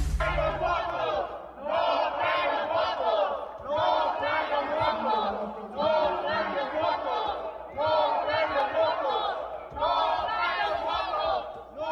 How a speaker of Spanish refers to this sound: No traen los votos, grita la oposición ante el planteamiento sacado pues, de la chistera de última hora Ricardo Monreal para que se detenga el debate y se regrese el dictamen a comisiones.